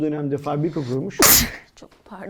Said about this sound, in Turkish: Çok yaşa.